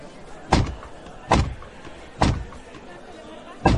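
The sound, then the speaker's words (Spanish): Four heavy, resonant ceremonial knocks by the secretary of the Redención brotherhood on the door of Las Carvajalas, evenly spaced about a second apart, ring out loudly against a low murmur of a waiting crowd. “Espera, porque voy a guardar un poco de silencio porque parece que se está acercando el secretario a la puerta de las Carvajalas para dar los toques en la puerta.”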